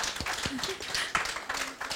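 Steady audience applause for a member of a music ensemble being introduced: many hands clapping at once in a dense, even patter that keeps up at a moderate level throughout, with no voices standing out.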